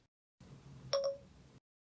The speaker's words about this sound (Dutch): Het oude, ja, het oude geluid van Siri. Eh, en dat was een inkopje natuurlijk, want het ging die aflevering over spraakassistenten.